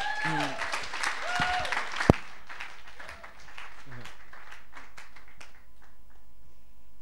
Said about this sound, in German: herzlichen Applaus als Willkommen.